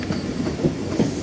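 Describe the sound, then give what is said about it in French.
The 8:03 train rolls in with a steady low rumble, its wheels clacking over rail joints in a few evenly spaced knocks. Moderately loud, with no voices. “Moi, ma porte, c'est le train de 8h03.”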